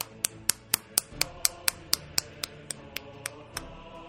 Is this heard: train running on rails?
no